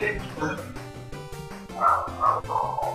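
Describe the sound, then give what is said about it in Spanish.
Dogs bark repeatedly in the background, a series of sharp yaps and woofs that grow louder toward the end, with voices faintly mixed in. “Y ahí están ladrando los perros de fondo.”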